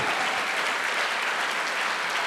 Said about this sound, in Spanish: Dele fuerte ese aplauso al que vive por los siglos de los siglos. Fuerte ese aplauso.